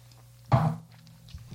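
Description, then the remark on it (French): A single sip of HIPL beer, a short wet slurp and swallow lasting a moment, with faint low background hum and no talking. “Alors, c'est à mon tour de prendre une gorgée de cette HIPL.”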